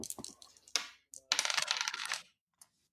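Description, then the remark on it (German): Dice are rolled for a Sinew check in a tabletop role-playing game, clattering and tumbling across a hard tabletop in a quick burst of sharp rattling clicks, settling after a couple of seconds with one last faint tick and showing a 9. Fairly loud, with no talking. “Wahrscheinlich muss ich jetzt würfeln. Ach so, stimmt. Du musst wieder Sinew würfeln.”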